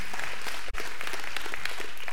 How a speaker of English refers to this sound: Can we give God a good hand clap of praise on all that He is doing?